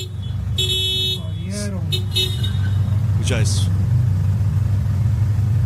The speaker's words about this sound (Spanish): Miren la cantidad de carros que transitan en este momento donde está ocurriendo ahí está dando reversa.